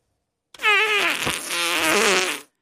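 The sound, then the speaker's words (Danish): A long, loud fart that lasts about two seconds, its buzzing pitch wobbling and sputtering before it cuts off, heard alone with no talking. “Han har lagt mærke til, at når han er ude og, og spiller og sådan nogle ting og sager, så er der mange, øh, når han så går rundt bagefter, så står der utrolig mange prutter højt, og synes, det er sjovt.”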